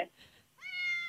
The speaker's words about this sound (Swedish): Nej, så söta. Vad hände? Det är någon katt i studion.